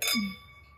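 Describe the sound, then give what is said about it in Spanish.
Glasses clink together once in a toast, a bright chime whose clear ringing tone lingers and slowly fades, with a brief low murmur underneath. “Salud.”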